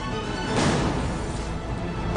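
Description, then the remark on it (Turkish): A sharp splintering crack as a wooden bolt lock breaks, then a rough, noisy clatter of a door being forced open, ending with another abrupt knock. Fairly loud, with no voices. “Kilidin kırılmasıyla kapı açıldı.”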